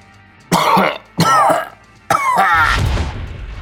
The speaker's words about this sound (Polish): Ktoś kaszlnął, jakby się dławiąc, i zaczął wyć